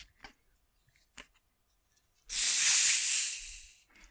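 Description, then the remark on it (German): A Pepsi cola bottle is opened right by the microphone: a few soft clicks as the cap twists, then a loud, bright fizzing hiss of escaping gas that lasts over a second and slowly fades. “Ich habe gerade die Cola-Flasche äh, neben dem Mikrofon geöffnet.”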